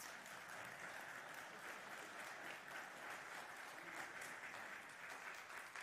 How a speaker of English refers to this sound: so I was going to invite you to applaud. My brothers and sisters, you have been richly blessed this morning, and I know that that is absolutely what you want to do. So let's say thank you again to our musicians,